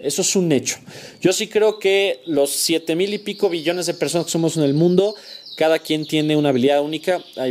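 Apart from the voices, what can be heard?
small birds chirping outside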